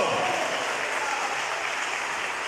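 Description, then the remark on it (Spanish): An audience claps together in steady, dense applause offered to the Lord, even from start to finish, with no voices rising above it. “Déselo al Señor ese aplauso”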